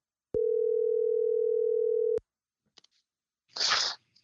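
A single steady electronic ringing tone of an outgoing phone call sounds clearly for about two seconds and cuts off sharply, followed by a couple of faint clicks and a brief burst of hissy noise.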